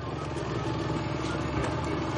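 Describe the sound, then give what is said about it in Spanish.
A vehicle engine runs steadily with a low, rumbling drone and a slight rise as Tokio accelerates through a police perimeter toward the Fábrica de Moneda y Timbre, with no voices. “Tokio ignora a la gente y acelera.”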